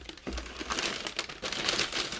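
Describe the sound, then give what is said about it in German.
A plastic bag full of sushi crinkles and rustles, a steady stream of crackly handling noise for a couple of seconds with brief louder crunches, and no one speaking. “Ihr merkt, ich habe noch, hab noch nicht richtig gegessen, aber oh, so ein Zufall habe ich hier eine Tüte voll mit Sushi.”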